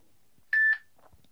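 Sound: phone beeping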